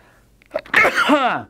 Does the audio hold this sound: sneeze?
yes